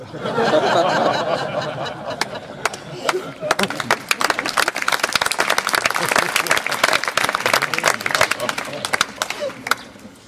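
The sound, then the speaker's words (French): A crowd laughs and murmurs, then an audience breaks into dense, steady applause for the performer that grows, with many hands clapping loudly and continuously until the end. “N'applaudissez pas trop fort le gourou quand même, parce que euh, j'ai dû me tromper dans mon sermon.”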